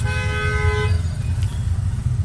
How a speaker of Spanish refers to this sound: Aquí escucharán un impertinente abusivo, tocando la bocina sin razón.